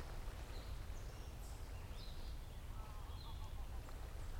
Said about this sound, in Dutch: Jullie lopen langs het water op de oever. je hoort wat vogeltjes.